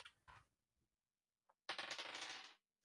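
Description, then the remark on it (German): A couple of quick clicks, then dice clattering and rattling for about a second across a hard surface before settling into silence, rolled for a dogfight in a game. No one speaks. “Aber jetzt musst du einen Kurvenkampf würfeln.”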